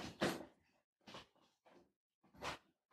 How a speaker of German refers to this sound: Hört man das? Ja. Weil da passiert irgendwas im Hintergrund. Ja, eine ne Katze zerlegt gerade irgendwie so ein Stofftier.